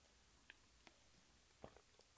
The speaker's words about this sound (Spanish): Déjenme tomar un poquito de agua porque traigo la boca medio seca.